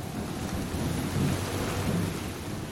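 Heavy rain pours steadily in a thick, continuous hiss, with a deep rumble of thunder rolling underneath. The storm stays loud throughout, with no voices.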